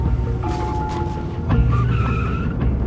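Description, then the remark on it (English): A van's tires screech and skid as the engine roars, the squeal rising and wavering before the motor surges louder and speeds off, as a man flees police from a school's back parking lot in Courtice. No one speaks. “When he shouted, Police and stop, the man jumped into his van and drove away.”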